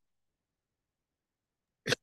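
sneeze

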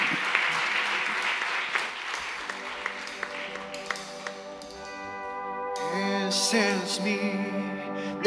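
audience applause

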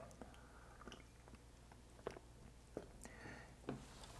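sip of coffee

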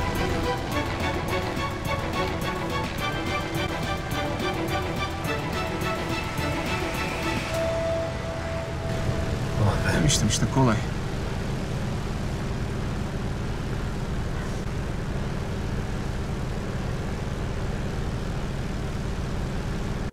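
airplane engine

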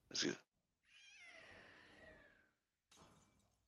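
scream

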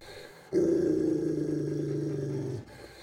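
dogs growling

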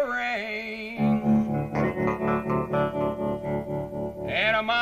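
played rock song recording

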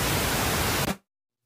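pink noise test signal

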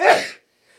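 sneeze

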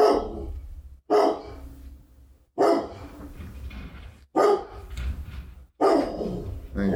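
dog barking

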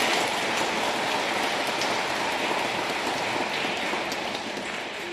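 warm audience applause

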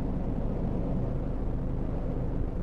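car interior

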